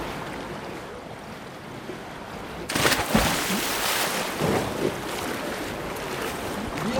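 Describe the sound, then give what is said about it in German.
After a steady low rush, a person jumps into the cold water of a 50-metre swimming pool with a sudden loud splash, followed by several seconds of churning, sloshing water. No one speaks. “So, ich springe jetzt mal ins Wasser.”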